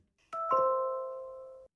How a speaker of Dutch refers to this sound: Je hoorde het geluid eh, dat de Apple HomePod maakt als iemand aanbelt met een slimme deurbel.